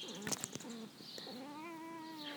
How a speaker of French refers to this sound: Tu vas trouver quelqu'un c'est drôle parce que elle ne connaîtrait rien au confinement. Elle veut juste baiser. Hein Ah mais tu vas trouver quelqu'un, il y a plein de chats ici. T'inquiète.